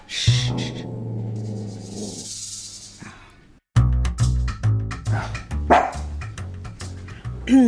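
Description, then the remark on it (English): A dog barks in a quick, steady run of loud barks, following a long drawn-out whining tone at the start. No one speaks. “So I didn't tell you about the dogs.”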